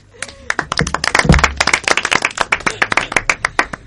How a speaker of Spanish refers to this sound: Un aplauso para él.